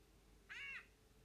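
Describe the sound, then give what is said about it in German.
A single short, harsh squawk from a green parrot in a video game, bright and nasal with a slight arch in pitch, lasting about a third of a second against a quiet background with no talking. “Es kommt dieser Pirate, also der Papagei, der grüne Papagei.”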